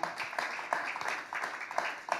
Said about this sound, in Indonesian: Itu siapa yang melihara kalau bukan Bapak yang di sorga. Tepuk tangan saudara buat Bapak yang di sorga.